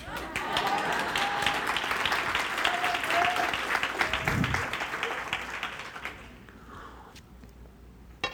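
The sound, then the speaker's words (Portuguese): An audience breaks into dense, steady applause with many hands clapping at once, a few faint voices mixed in, before the clapping thins out and fades away near the end. “o pessoal não aplaudiu, não ficou com recalque.”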